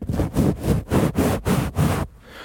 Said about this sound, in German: Jetzt kommt noch der Windschutz aufs Mikrofon.